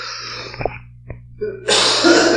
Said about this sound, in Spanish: Sí, definitivamente. Hasta me ahogué.